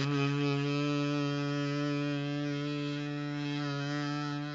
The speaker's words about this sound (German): Dann eine Biene.